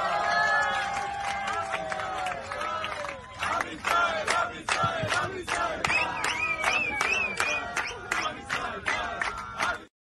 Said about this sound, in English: these are Peruvian Israelis in Peru uh, on a Peruvian trek. They're getting on the airplane and they're singing in excitement to fight the wars of Israel.